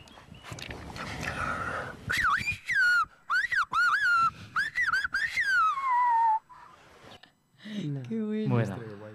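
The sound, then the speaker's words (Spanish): A person whistles a melodic, speech-like phrase in quick bursts and gliding pitch changes, loud, in Silbo Gomero, the whistled language shepherds use to communicate on the mountainous island of La Gomera in the Canary Islands, followed by a brief spoken voice at the end. “Es el silbo gomero.”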